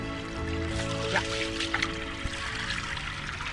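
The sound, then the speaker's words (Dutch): Water runs steadily from a tap as hands are washed without soap, the water draining straight into a pond; a continuous pouring trickle with brief splashy bursts as hands move under it, moderately loud. “Nou, dat water stroomt dan ook weer gelijk in de plas weg.”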